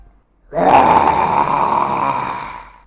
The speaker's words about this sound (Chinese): 一声洪亮的吼叫声，伴随着一个巨大的身影，突然出现在商人的面前。